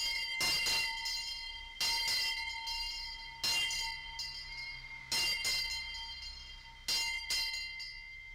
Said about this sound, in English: And the history is that when the mail train arrived at Union Mills and it then departed for Crosby, the station master would go to the up the steps to the station entrance and ring this bell as such.